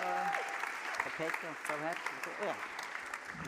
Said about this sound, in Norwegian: Oh, applaus!